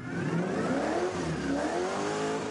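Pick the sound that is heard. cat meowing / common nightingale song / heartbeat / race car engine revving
race car engine revving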